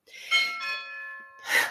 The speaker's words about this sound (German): was ist das denn jetzt wieder? Ist das echte, echtes Türklingeln? Ja, ich muss leise sprechen, sonst muss ich aufmachen.